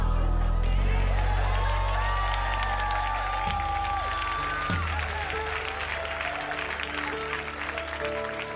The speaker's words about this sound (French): Vous m'applaudissez, mais je vous applaudis pas. Parce que j'ai demandé à ce que vous bénissiez quelqu'un.